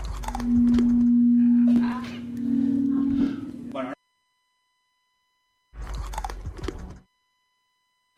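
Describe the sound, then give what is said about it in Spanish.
Someone crunches and chews on stones in two loud bursts separated by a few seconds of silence, with a steady low hum running under the first burst. “Si es como comer turrón, tampoco.”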